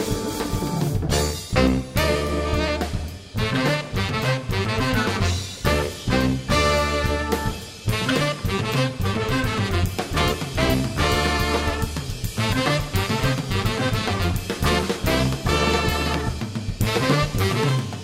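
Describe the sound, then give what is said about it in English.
A tenor saxophone plays a steady run of melody over a full, loud band with drums and bass. The music is continuous, with no talking. “performance by Mr. Kevin Harris right there on the tenor saxophone”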